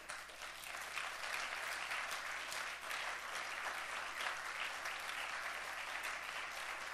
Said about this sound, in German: Lass uns mal Gott einen Applaus geben für unsere Zukunft.